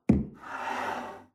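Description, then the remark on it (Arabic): A coffee cup is set down on a table lit by a dim lamp with a soft knock, followed by about a second of light scraping as it slides into place. No one speaks. “وفنجان قهوة بنحط حد علاء”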